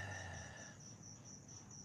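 Crickets chirp in a steady, pulsing high trill, fairly soft and continuous, with a low mechanical hum underneath that drops away partway through. No one speaks.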